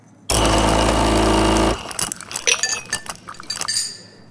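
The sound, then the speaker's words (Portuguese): A necklace is set down: a loud, harsh buzzing burst gives way to a quick run of light, irregular metallic clinks and rattles that trail off. No one speaks. “Meu colar tá arrasando. Desculpa, amigo, eu vou te descer aqui, só um minutinho.”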